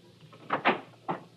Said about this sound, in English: As I walked up the steps, I heard a door close in the back, so I knew he'd returned.